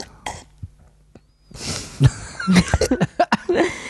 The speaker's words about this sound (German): Einmal noch bitte aushusten. Aber ich glaube, ich, glaub, ich habe wirklich den Eindruck, da, da kriegt man irgendwie so, so, so einen Reiz im Husten mit dem Tee.